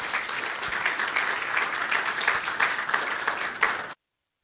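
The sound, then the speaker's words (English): Steady audience applause as Aubrey Matshiqi takes to the stage, a dense wash of many hands clapping at a fairly loud, even level for about four seconds before stopping abruptly into silence. “Won't you give him a big round of applause as he takes to the stage?”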